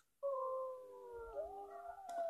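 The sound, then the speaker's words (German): Wolves howling in a chorus of long, sustained wails that slowly bend in pitch and overlap one another, loud and steady with no talking. “Das ist ein Wolf.”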